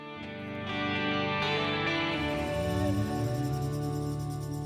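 A pop song plays on Radio Nova at steady, fairly loud volume, with dense layered instruments, effected guitars and a full band sound continuing throughout, no talking over it.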